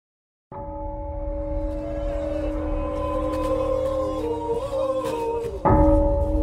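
A Sherpa prayer ceremony at the Nepal south-side Everest base camp, local Sherpa guides praying to the mountain god for a safe climb: steady, droning tones hold over a rumbling background, with layered pitches wavering slightly before a louder shift near the end.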